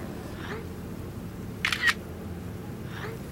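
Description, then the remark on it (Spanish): A camera shutter fires once as a photo of a ship is taken, a quick, crisp double click of mechanical snaps standing out sharply over a low, steady background rumble. “Te mando una foto para que veas el barco.”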